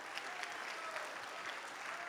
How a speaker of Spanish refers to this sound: Dele ese aplauso al Señor si puede.